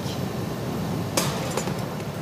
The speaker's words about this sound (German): Ja, ja, und er kontrolliert die Maßen und schneidet wirklich ein bisschen Glas weg.